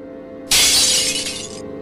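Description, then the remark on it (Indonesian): Glass shatters with a sudden loud, bright crash, followed by about a second of tinkling, scattering shards before it cuts off; there is no talking. It is a window being broken downstairs in a house by someone fleeing. “Saat sedang melihat filenya, Peter terkejut mendengar pecahan kaca di lantai bawah.”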